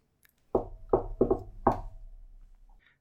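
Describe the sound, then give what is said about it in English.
Five rhythmic knocks on the wooden door of Ethelred the First in a quick flourish, with a brief double-tap in the middle. The knocks are fairly loud, and each leaves a low, resonant ring. “I uh, rap on his door with a flourish in a rhythmic fashion.”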